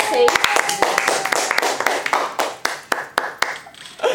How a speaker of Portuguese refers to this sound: É e aí, ó, vocês merecem o quê, ó? Palmas, porque foi muito bom.